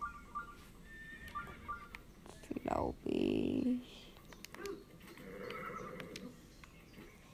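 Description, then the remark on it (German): A horse lets out a loud, drawn-out whinny midway through, with scattered clip-clopping hooves before and after. A person talks quietly in the background. “Mein Pferd kommt schon.”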